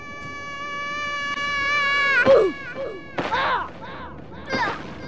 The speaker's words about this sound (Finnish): I found where the oof sound originates from a game called Messia.